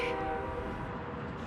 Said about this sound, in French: C'est le train The train. Oui, c'est le train. On peut parler tout de suite du train si vous voulez, parce que c'est un élément très important ici pour cette communauté.